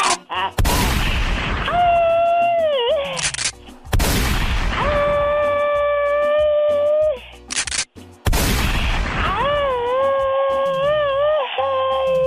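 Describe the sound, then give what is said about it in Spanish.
Loud gunshot sound effects: three repeated bursts of gunfire, each sharp blast trailing into a long, wavering ringing whine before cutting off abruptly. “¿Cómo se llaman esas cosas que truenan tú? Unos balazos.”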